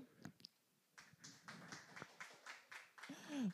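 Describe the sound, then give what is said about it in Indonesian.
Scattered clapping from a small group, quiet, with loose claps spread across a few seconds before a voice briefly cuts in at the end. “Tepuk tangan untuk”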